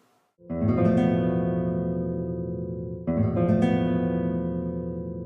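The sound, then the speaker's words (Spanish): A rich flamenco chord, a traditional major chord with one note replaced and another added, rings out loudly on an instrument, struck once and left to sustain, then struck again about three seconds later and ringing on, with no voices. “Y un acorde flamenco suena así.”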